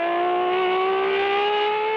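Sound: car engine revving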